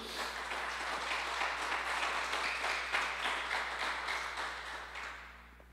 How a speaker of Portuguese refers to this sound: Dá um aplauso ao Senhor aí.